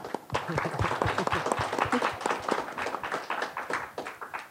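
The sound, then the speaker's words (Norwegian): An audience applauds with a dense, steady patter of many hands clapping, moderately loud and sustained throughout, with no voices standing out above it. “Takk. Applaus.”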